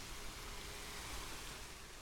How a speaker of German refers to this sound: Wir sind gerade eben am Wasserfall. Wir laufen ein Stück mal weiter.